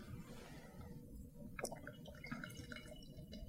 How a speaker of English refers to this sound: It's a rich color. It's a rich colored pour. The pour is very nice, is what I've heard people who are into drinks saying.